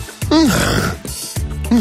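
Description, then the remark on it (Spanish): A person snores loudly at night, the snoring heard every night by the one sleeping beside them, in two long, rough breaths, each a harsh rattling grunt with a wavering pitch, the second cut short. There is no talking. “… nos ha enviado el concierto nocturno que tiene cada noche a su lado, mira.”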